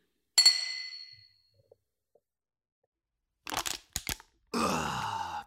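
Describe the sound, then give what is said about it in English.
Glasses clink once in a toast, a bright ring that fades over about a second, followed after a pause by several rough crackling bursts and a longer hiss. “Oh, cheers. Cheers.”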